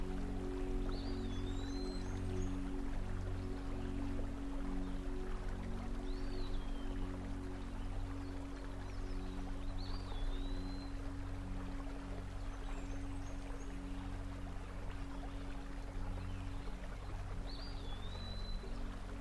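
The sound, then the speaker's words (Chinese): A shallow stream flows in a steady, unbroken babble of trickling water, while a bird chirps short, high rising calls every few seconds above it. “等你再次回过神来的时候，发现自己已经躺在一片宽大的荷叶上，在一条小溪的正中央漂浮着。”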